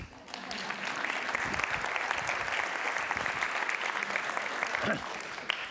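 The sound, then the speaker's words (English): A science class applauding a dessert made in the lab, steadily for several seconds, a dense patter of many hands clapping at once with a fairly even, sustained loudness and no clear individual beats. “so we could eat this lab, but every time we see a great dessert, we clap.”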